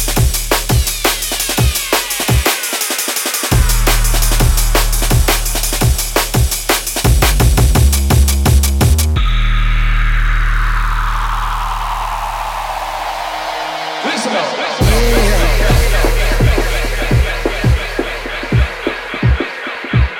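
A drum and bass track built on a fast, chopped Amen break over heavy bass. Midway the drums drop out for a sweeping, filtered breakdown, then the crisp breakbeat slams back in.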